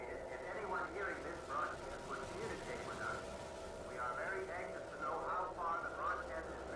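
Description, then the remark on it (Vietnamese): A faint, crackly murmur of one of the first radio broadcasts, heard through static: a voice rising and falling in muffled, narrow-band tones with a steady hiss underneath. “Gần 100 năm ánh sáng cách xa trái đất, Tiếng xì xào yếu ớt của một trong những lần phát sóng vô tuyến đầu tiên.”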